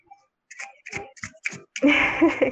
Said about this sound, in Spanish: Disculpen si se va a oír el tren, pero está pasando. no, no hay broncas, nos gustan los trenes en el Ojo Podcast.